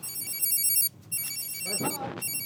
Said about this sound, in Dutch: Gaat je telefoon houden of je pieper? Dat is de pieper, we gaan weer.